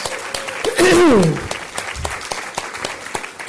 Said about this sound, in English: I think we can applaud one more time for three great speakers.